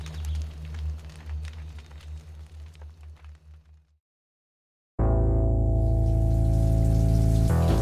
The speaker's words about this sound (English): It was good to be back, Nia thought, standing in the shower, hot water pelting against her coppery skin. There was nothing like a long shower to slough off the stasis of a beach vacation.